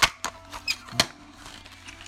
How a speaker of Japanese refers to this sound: よいしょカセットテープをこう挿入してでオンですよ